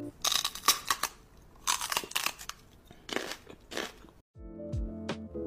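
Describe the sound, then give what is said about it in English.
Loud crunchy munching, like someone biting into fries, comes in several irregular bursts over about four seconds before a short pause and a tonal musical passage. “You might find yourself talking about living a healthy lifestyle with your foodie BFF while munching on french fries.”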